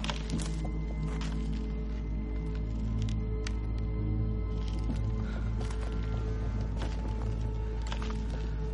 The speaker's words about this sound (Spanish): Camina despacio sobre el hielo.